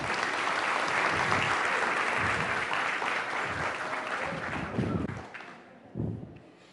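An audience claps steadily in a dense, even wash of applause that holds for several seconds, then thins out into a few scattered final claps before fading.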